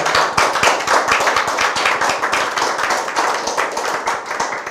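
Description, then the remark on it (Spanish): Lively audience applause for the Holy One, blessed be He, on the festival of Sukkot, with many hands clapping fast and close together, a dense steady patter that holds at a strong level for several seconds without any voices. “Aplauso al Santo bendito sea en este hermoso día de la fiesta de Sucot”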